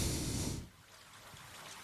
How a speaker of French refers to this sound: avec un peu de pluie comme ça, c'est beau, non